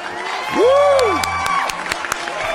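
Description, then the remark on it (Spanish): A crowd claps and cheers to offer birthday congratulations on a capital-city news programme, with a loud swooping whoop rising and falling early on and sharp scattered claps continuing over the noisy hubbub. “Un aplauso. ¡Bravo!”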